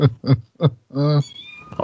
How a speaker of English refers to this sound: That was cats yelling at him.